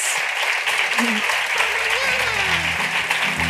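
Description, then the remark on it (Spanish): Steady, dense applause from an audience for the invited guests at the close of an event at the Espacio Madresfera fills the whole stretch, a continuous crackle of many hands clapping, with faint voices mixed in underneath. “Un aplauso gracias.”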